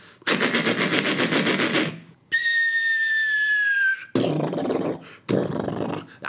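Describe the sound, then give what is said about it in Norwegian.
A comedian's voice imitates war sounds: a burst of sputtering machine-gun noise, then a long falling whistle like a dropping bomb, followed by two rough explosive bursts, all loud. “Hvis jeg f.eks. snakker om krigen, da, for eksempel, så, så kan det høres sånn ut.”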